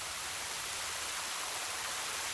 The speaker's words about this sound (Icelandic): Ekki leið á löngu þar til regndróparnir buldu á uppþórniðum ökronum.